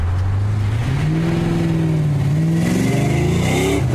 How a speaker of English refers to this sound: car surged forward impressively, but at the same time, a queer swaying motion gave me a real scare.